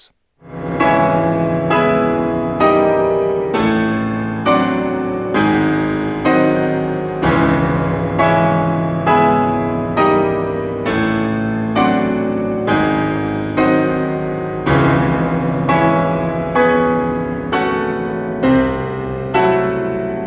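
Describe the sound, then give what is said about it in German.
Loud, heavy piano chords struck one after another about once a second at the end of the piece, each ringing out like a tolling bell before the next lands, with no voices. “und zwar die großen Glockenschläge am Ende des Musik”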